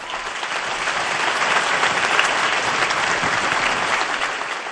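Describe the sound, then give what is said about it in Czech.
Sustained crowd applause for a newly beatified woman, a dense steady wash of many hands clapping at an even loudness for the whole stretch, with no voices standing out. “Potlesk pro novou blahoslavenou.”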